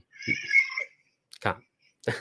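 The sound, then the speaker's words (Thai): A cat gives one drawn-out, high-pitched meow, followed after a pause by two short, rougher vocal bursts. “เริ่มมีเสียงแมวอ่าครับ”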